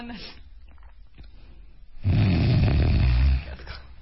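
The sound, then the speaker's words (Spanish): A voice imitates the snoring of a person with sleep apnea: after a quiet pause with faint breaths while breathing stops, a loud, rough, gasping snort bursts out as the apnea breaks, rattling for over a second before cutting off abruptly. “60 segundos o más, y al final el cuerpo que se está asfixiando reacciona con un ronquilote, pero además movimientos.”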